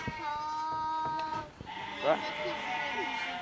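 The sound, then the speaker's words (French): Sheep bleat repeatedly, their wavering, quavering calls overlapping in a steady stream, with a louder tremulous bleat standing out midway and faint voices in the background. “oh les moutons, t'inquiète pas, on ira les voir tout à l'heure.”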